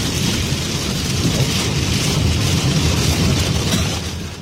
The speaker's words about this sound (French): Là, il y a quelques averses assez fortes. On suit ça avec euh, la gang de Extreme euh, Chase euh, Québec. On entend même la pluie dans le windshield.